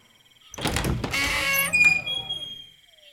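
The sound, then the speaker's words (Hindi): A house door is opened by an old woman, swinging open with a rattling, mechanical scrape and a brief high creak near the end, lasting about two seconds with no voices. “कुछ देर इंतजार करने के बाद एक बूढ़ी स्त्री ने दरवाजा खोला”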